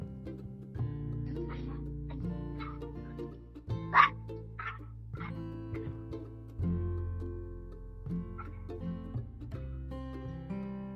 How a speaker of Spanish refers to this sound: Bueno, antes de seguir saludamos al perrillo que ladra, que ellos también eh. tienen derecho a participar, los perritos también tienen derecho a participar.